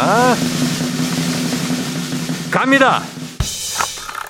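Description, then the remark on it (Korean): A lottery drawing machine whirs steadily, its motorized hum and faint rattle running continuously throughout, with a man's voice briefly speaking over it partway through, as numbers are drawn for a weekly Friday broadcast prize draw. “자, 일단 뽑고 시작합니다.”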